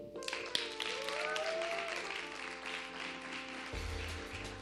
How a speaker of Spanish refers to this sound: Fuerte el aplauso.